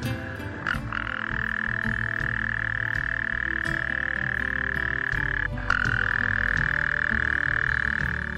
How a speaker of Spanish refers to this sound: que nadie sabe si se trata del sapo o de un shuar a la espera de un tigre.